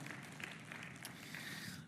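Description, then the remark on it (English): An audience clapping together as a clap offering of praise to the Lord God Almighty, a steady, dense wash of many hands that holds an even level throughout, with scattered sharper claps standing out from the crowd. “Somebody give a little clap offering of praise to the Lord God Almighty.”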